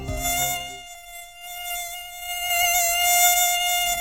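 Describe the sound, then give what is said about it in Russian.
A loud, amplified mosquito whine drones steadily for several seconds, a high buzzing tone with rich harmonics that wavers slightly in pitch, heard alone. “Вот это вот, вот это ужасный звук, который вы сейчас все слышали, это да, это усиленный звук комара.”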